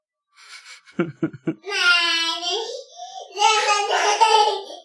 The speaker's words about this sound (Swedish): Ja, kära lyssnare. Vi har ett barn som kommer låta i bakgrunden. hon har gått upp för trappan och eh, genom att ställa sig på en stol lyckats öppna dörren till studion.